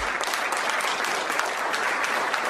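A group of people clapping steadily, a dense, continuous wash of applause that stays at an even level throughout, fairly close and with no voices standing out.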